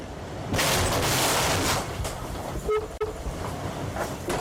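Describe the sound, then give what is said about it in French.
An 8.5-tonne racing sailboat travelling at nearly 20 knots slams into a sperm whale, recorded by a camera on the deck: a sudden loud, rushing roar of water and hull noise, a sharp jolt and brief creaking squeal midway, then continued churning. No voices. “Ce que vous venez d'entendre, c'est le son du choc violent provoqué par la collision d'un bateau du Vendée Globe pesant 8 tonnes 5 et lancé à près de 20 nœuds avec un cachalot.”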